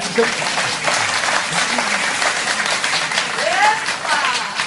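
A burst of hand-clapping applause fills the whole stretch, a dense, steady crackle of many claps with no clear rhythm, with brief voices faintly audible underneath.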